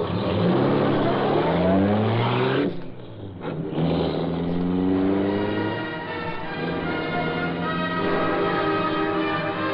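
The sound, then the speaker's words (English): The Black Beauty, the Green Hornet's powerful car, roars loudly into life, revving up with rising pitch, dipping briefly, then surging again as it accelerates away into the darkness. No voices. “The great car roared into life.”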